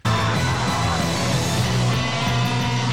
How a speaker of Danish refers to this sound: Der er også sådan en underlig whoosh Ja, ja. ja, det er som om guitaristen løber ind på scenen for at spille. Eller som om han bliver skubbet ind i, altså, du ved, de skubber ham ind, og så vælter han lige sådan, hov.